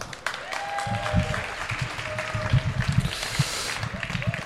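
An audience bursts into applause, a dense, sustained clatter of many hands clapping steadily, with a few whoops and shouts rising over it.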